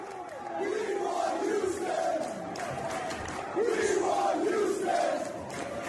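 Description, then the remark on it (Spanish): A large crowd of New York Yankees baseball fans chants in unison, repeating the short rhythmic phrase "We want Houston" again and again over a steady roar of cheering, loud and sustained throughout. “Póngame el video otra vez. Vamos a escuchar a estos imbéciles otra vez.”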